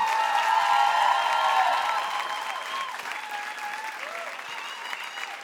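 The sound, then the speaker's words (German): An audience applauds in a dense, steady wash of clapping, loudest at the start and gradually easing off while continuing throughout, with a few cheers mixed into the crowd, giving a man a big round of applause. “Also ist ein, guter, ist ein guter Kerl, der verdient einen großen Applaus, einen großen Applaus”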